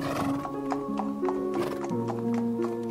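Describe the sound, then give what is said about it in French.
Steady clip-clop of horse hooves, evenly spaced, with a drawn-out, wavering horse neigh over them; no one speaks. “La malheureuse enfant chevaucha plusieurs jours avant d'arriver enfin auprès du vent d'Est.”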